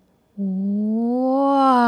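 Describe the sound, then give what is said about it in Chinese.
A voice imitates a film camera zoom-in shot moving from far to near, with one long, steady vocal tone that starts after a brief silence and slowly rises in pitch and intensity, held for well over a second. “那还有一种是常常可以看到的拍法，就是从远到近，就是 zoom in。那我想用声音来描述。”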